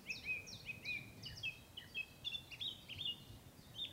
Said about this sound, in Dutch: Wat je bijvoorbeeld heel erg merkt bij vogels. Hier hebben we de eentje. Dit is de zanglijst die we nu mooi horen.